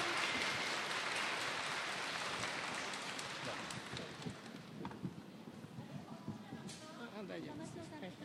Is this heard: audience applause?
yes